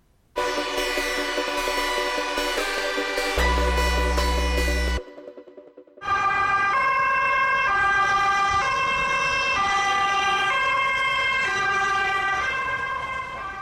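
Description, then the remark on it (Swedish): A loud ambulance siren wails in repeating two-tone cycles as the vehicle passes on the road, briefly dropping off before resuming, with engine rumble underneath and no talking. “Ja, det är nog så här vi oftast upplever ambulansen och de flesta av oss har lyckligtvis inte behövt åka med.”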